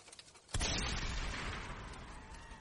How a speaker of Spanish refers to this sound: Escuché el disparo y un destello cegó mi vista.